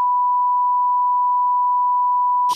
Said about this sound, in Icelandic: Er það kannski að blipið út?